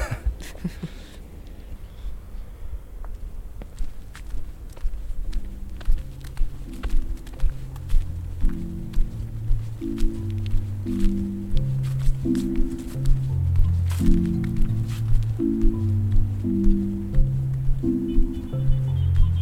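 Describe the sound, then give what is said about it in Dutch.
Steady footsteps of people walking outdoors, a run of crisp steps with a low, tuneful melody playing underneath throughout. “Als we verder lopen, spreekt een groepje Hoekenezen ons aan vanaf hun terras nou aan het water.”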